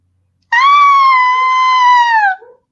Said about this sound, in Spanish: …, es …, la que grita.